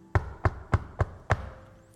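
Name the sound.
knocking on a door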